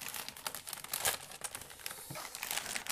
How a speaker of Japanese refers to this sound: 袋がありましてその中に、えー、オレンジ色のねしおりが入ってますねでこのしおりの形状としてはあのまあ、僕の中学はそうだったんですけど、あの普通のファイル紙っぽい素材に中にいろいろ紙が入ってそうなバインダーっぽいやつですねちょっと開けていきます